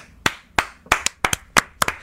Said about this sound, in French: Je encore des, je veux encore des applaudissements.